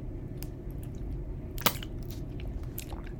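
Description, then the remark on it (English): Someone drinks water, with a few quiet wet swallowing gulps and soft mouth clicks spaced across a few seconds, one sharper click near the middle, and no talking. “Okay, I sound like I'm dying, so I'm gonna drink some water.”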